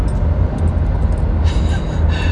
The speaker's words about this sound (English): You're gonna hear me get careened off the side of the road by a semi.